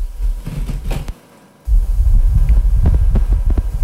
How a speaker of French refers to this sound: des rafales de vent un peu, c'est ça ou une atmosphère qui gronde un peu, c'est ça Tout à fait, ouais.